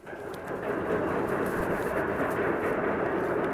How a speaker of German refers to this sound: Applaus